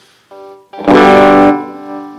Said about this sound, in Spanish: y te puedes hacer trémolo también con el volumen, le das, vas mm. haciendo así con el... típicos...